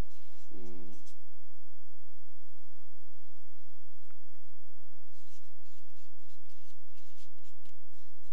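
Soft, steady scratching of pens writing on paper cards, close by and quiet, with faint rustles throughout over a low electrical hum; a brief voice sound comes near the start.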